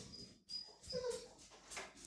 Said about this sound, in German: Der Hund möchte Abendessen. Der Hund muss warten. Ja, der Hund muss warten, das nützt nichts.